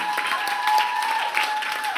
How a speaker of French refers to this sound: On peut l'applaudir.